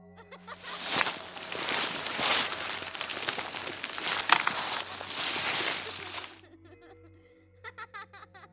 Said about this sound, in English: He thought he heard his daughter's laughter when he crossed a babbling creek.